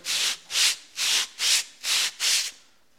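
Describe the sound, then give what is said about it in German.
Hand sanding a dirty piece of carved wood on a pad underneath: six steady back-and-forth rasping strokes in an even rhythm, each a bright gritty scrape, with brief pauses between and no talking. “Eine Unterlage drunter. Und schleift erstmal.”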